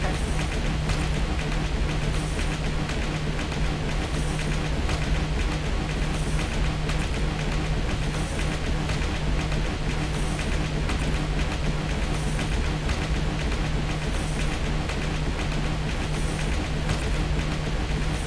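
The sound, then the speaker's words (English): A train in a video game rumbles steadily through a tunnel, with a constant low drone, a humming tone and faint regular high clicks every second or so, loud and unbroken with no one speaking. “Alright, there are two tunnels.”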